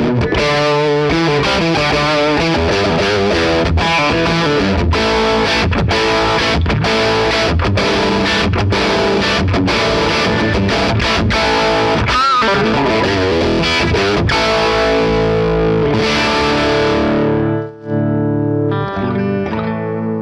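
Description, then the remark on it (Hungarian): Heavily overdriven electric guitar played through an amplifier turned up high. It plays loud, dense distorted chords and riffs with sharp rhythmic stops, sustaining thickly before cutting out briefly near the end and resuming in a thinner tone. “Meg kell kicsit kínálni a magasat, levenni a mélyből, mert ilyenkor befullasztod a végfokot, ezért nem kell baromi sok mély, amikor így föl van küldve Már 6 órával ezelőtt is befulladt.”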